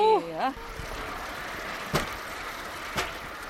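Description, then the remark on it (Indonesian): A steady rolling rumble of a rail bike's wheels on railway tracks, with sharp clacks about once a second as joints pass, after a brief voice at the start. The rail bike is ridden along the Samjinggang river in spring, reached by shuttle bus from Gajong station. “Setelah naik shuttle bus selama 5 menit dari stasiun Gajong, kita bisa naik sepeda rel di atas rel.”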